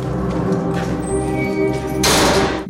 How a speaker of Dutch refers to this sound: Terwijl de ene bewaker met hem de cel uitloopt, sluit de andere de deur.